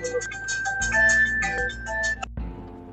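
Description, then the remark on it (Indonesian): A mobile phone ringtone plays a bright electronic melody, loud, with a steady high tone running through it, then cuts off abruptly as the call is taken, leaving a faint hum. “eh, saya terima telepon”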